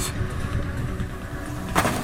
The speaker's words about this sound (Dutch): Eentje daarvan zit in de auto achter het stuur. De andere negen die proberen die auto dan over die ijspiste te schuiven richting die middencirkel. En dat vinden ze leuk in Rusland. Ja, hup, ze duwen dat trabantje de ijsbaan op.